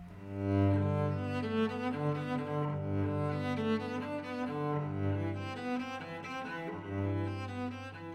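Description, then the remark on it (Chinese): A cello plays a slow, sustained melody alone, its warm low bowed notes rich in harmonics, moving steadily at a moderate volume throughout. “牛阿姨摇摇头说：“我的和它太不一样了，我的比它大很多，叫做大提琴。”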